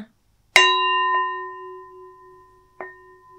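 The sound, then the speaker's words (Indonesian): A metal bowl is struck once and rings with a clear, sustained tone, then two lighter taps follow while the ringing slowly fades. Fairly loud, with no talking over it. “Gini ketoknya?”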